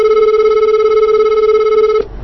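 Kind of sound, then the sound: signal or alarm, telephone line ringing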